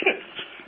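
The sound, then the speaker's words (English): A single sharp sneeze bursts out, followed by a brief breathy trailing sound that fades quickly. “I have to sneeze.”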